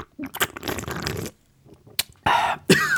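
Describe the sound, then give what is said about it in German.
Harsh, spluttering coughs, a long rough burst followed by a few sharper choking coughs, from someone who swallowed a canned iced coffee milk drink the wrong way. “In die falsche Röhre gekriegt, glaube ich.”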